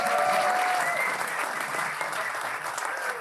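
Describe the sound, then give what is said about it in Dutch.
Sustained audience applause welcoming a male performer, a dense steady clatter of many hands clapping at once, loud and even throughout with a few faint cheers mixed in. “Mag ik een hartelijk applaus, dames en heren, voor de man, de legende.”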